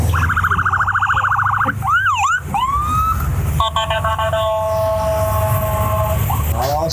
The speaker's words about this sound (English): I hear cop cars.